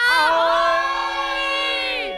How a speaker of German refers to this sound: Die Realschüler schrien,